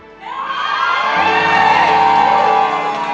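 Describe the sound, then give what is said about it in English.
A large crowd erupts in loud shouting and cheering, with whoops and raised voices blending into a sustained roar that swells quickly and holds for several seconds. “Who was the particular person who shouted, but they stopped themselves? Shout again.”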